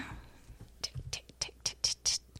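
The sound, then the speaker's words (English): A voice imitates someone typing on a Google account with a quick series of breathy, hissy mouth clicks and ticks, about eight in an uneven rhythm, fairly soft. “That's my fake typing.”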